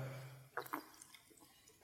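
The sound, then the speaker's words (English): A preacher's glass of water gets bumped and nearly spilled during a church sermon: water sloshes with two quick splashy clinks in a row, followed by quiet and a few faint small knocks. “And praise the Lord, I didn't spill my water. I almost did.”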